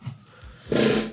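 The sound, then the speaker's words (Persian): A chair gives a single loud, rasping creak lasting about half a second, with a buzzy, strained groan to it, after a moment of near quiet. No one speaks. “یا خدا این صندلی بود جای خورده خودم نبودم”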